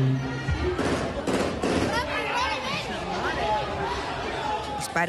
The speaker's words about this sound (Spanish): La riña con los minutos se intensificó en violencia como también en peligrosidad. De un momento a otro los puñetazos y patadas dieron paso a disparos a mansalva.